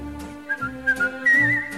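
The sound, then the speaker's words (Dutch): A person whistles a short melody, several clear rising and falling notes ending in a longer wavering tone, played over soft musical accompaniment with no talking. “Afluit je het zo”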